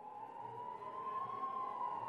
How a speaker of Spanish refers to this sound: Y pensó por un instante que eran juegos pirotécnicos, pero minutos después se escucharon sirenas